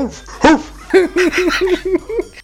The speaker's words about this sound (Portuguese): Você buzina ele late, né?